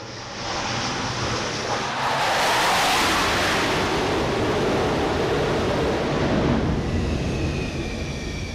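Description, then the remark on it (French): A dense, steady roar of wind and machinery on an aircraft carrier flight deck at sea in the Mediterranean, swelling louder in the middle, with a faint high whine creeping in near the end. No one speaks. “Vous l'entendez, le pont du porte-avions, nous sommes en mer Méditerranée”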